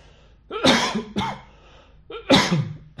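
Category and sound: human body sound, coughing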